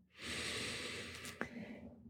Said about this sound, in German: Atme mal durch. Jetzt gerade mit mir. Trink Schluck Tee, was immer du machst, atme.